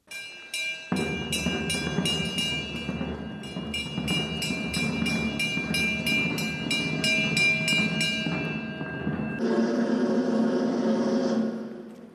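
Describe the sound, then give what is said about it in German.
An alarm bell at Fort St. Elmo rings loudly and rapidly during a re-enactment, clanging about three strikes a second with a brief pause partway through. It alerts the garrison that the Grand Bailiff will soon arrive, then gives way to a dense, noisy rumble of activity. “Gerade haben Sie das Läuten der Alarmglocke gehört, welche die Garnison darüber informiert, dass der Großbeiliff bald eintreffen wird.”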